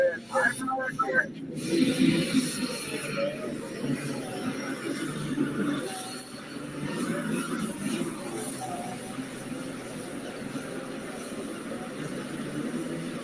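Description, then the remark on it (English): A pulling tractor's Hypermax rear-end gear whine, a steady high-pitched mechanical scream over a loud, continuous engine roar that holds for the whole stretch after a brief sharper burst at the start. “You can hear the Hypermax rear end in that tractor.”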